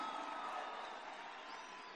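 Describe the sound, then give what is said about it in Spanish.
An audience claps together in a steady, dense wash of applause for a guest called up to help, holding at an even level throughout, with no voices breaking through. “Por favor, un fuerte aplauso para el maestro Edgar Mora.”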